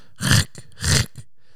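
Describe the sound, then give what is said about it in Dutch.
Someone imitates a lion's growl with two rough, throaty bursts, each followed by a short breathy catch, loud and alone without any talk. “En dan kijkt ze naar beneden en ziet ze daar een of andere leeuw staan.”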